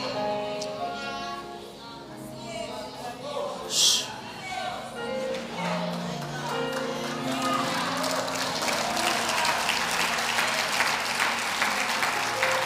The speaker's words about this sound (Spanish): No quiero ni mirar a ver quién, quién aplaude y quién no, porque no quiero ver quién es religioso y quién no es.